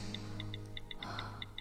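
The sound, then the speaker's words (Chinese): A home clock ticks steadily, with about nine crisp, high-pitched ticks in under two seconds over a low, constant hum. No one speaks. “可奇怪的是，家里的时钟并没有顺时针走，而是在逆时针走着。”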